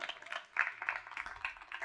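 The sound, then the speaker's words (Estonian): A quiet round of applause for a contestant who gave the correct answer and won a backpack, dense overlapping claps forming a steady, fairly soft patter for a couple of seconds, with no voices. “tuhat kuussada on tõepoolest õige vastus, daamid ja härrad, sind ootab seljakott, teeme ühe aplausi sulle, ole hea, tule siia.”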